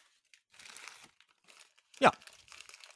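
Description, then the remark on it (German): Dry crinkling and rustling of something being crumpled up, with a sharp louder crunch near the end and a brief spoken word. “Nein, ich pack nichts aus, ich habe gerade was zerknüllt.”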